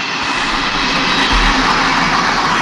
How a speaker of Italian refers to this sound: Scusate, è passato il treno, non ho sentito niente.